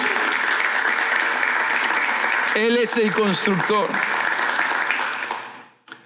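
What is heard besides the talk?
audience applause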